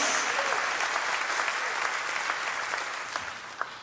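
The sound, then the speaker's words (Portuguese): An audience applauds the Lord with steady, dense clapping that fills the whole clip, a broad crackling wash of many hands that tapers slightly toward the end. “Pois nós salva de palmas ao Senhor.”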